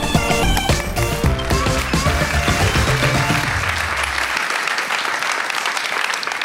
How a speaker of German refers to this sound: Hey, vielen herzlichen Dank für diesen äh, warmen, herzlichen Applaus im schönsten Bundesland äh, der Welt. Sagt man hier ganz stolz in Bayern, in der schönsten Kirche Deutschlands.